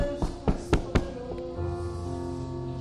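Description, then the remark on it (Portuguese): Four quick, evenly spaced knocks on a door ring out clearly, followed by a steady low humming tone that carries on afterward. No one speaks. “E quando o rei pensou que era o filho de Daniel, ele bate na porta.”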